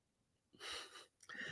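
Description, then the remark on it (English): A person yawns: a long, breathy drawn-out breath followed by a shorter second airy exhale, with no talking. “I just yawned. I am falling asleep.”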